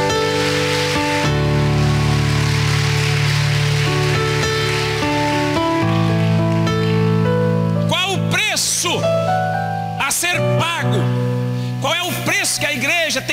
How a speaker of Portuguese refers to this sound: Se você acredita nisso, dê um aplauso a Jesus.